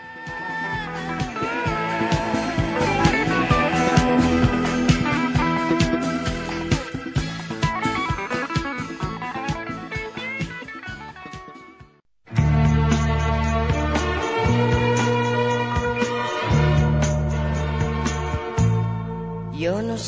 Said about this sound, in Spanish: Así que bueno, pues vamos a escuchar …